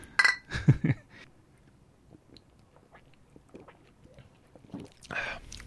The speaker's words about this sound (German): Wir trinken auf euch. Dann heben wir mal den Humpen an und stoßen auf euch an, Jungs. Prost!